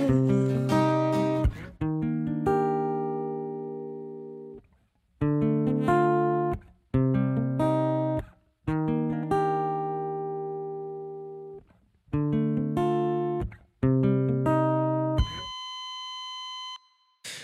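Loud electronic instrumental music plays in sustained, buzzy synth chords that cut off and restart in short blocks, closing with a thin, high tone as the track ends.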